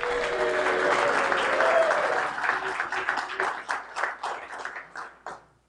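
A live audience at the Men's Resurrection Breakfast at First Baptist Church on London Avenue, Egg Harbor City, New Jersey, applauds loudly on Saturday, April 3rd, a dense wash of clapping with some cheering voices that thins out into scattered individual claps over about five seconds.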